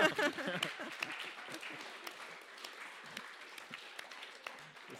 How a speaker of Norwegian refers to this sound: Ja, takk for det. det eh, ja, gi det en applaus, da.